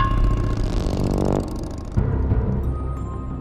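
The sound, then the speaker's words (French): The engine of a blue Triumph motorcycle revs loudly, its throaty pitch climbing and falling, then catching again in a second burst before settling into a rumbling idle. “Pour ses 18 ans, il lui offre une moto, une Triomphe bleue.”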